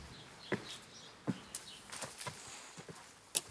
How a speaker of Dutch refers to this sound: En net als we de, de straat uitstappen, hoor ik een stok achter mij tikken op de keien.